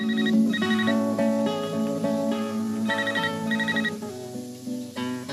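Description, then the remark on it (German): A Nokia 2110 mobile phone ringtone plays a bright, synthetic melody of quick stepped notes, repeating its familiar tune loudly and continuously with no talking. “Hallo, das Nokia 2110. Nokia. Connecting People.”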